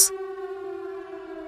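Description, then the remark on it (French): The siren from Christophe Gans's film Silent Hill: a droning air-raid siren holds a steady, eerie tone with layered harmonics, sounding sustained and ominous after a brief sharp burst at the very start, with no voices. “La sirène de Silent Hill de Christophe Gans,”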